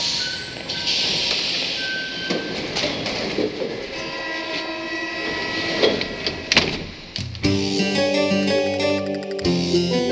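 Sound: metro train ride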